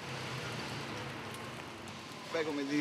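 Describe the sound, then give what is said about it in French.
Steady, dense hiss of rain falling on a street by café terraces in the Monti district of Rome, Italy, even throughout, with a voice briefly starting to speak near the end. “Dans le quartier de Monti, au cœur de Rome, malgré la pluie, les Italiens se précipitent aux terrasses des cafés.”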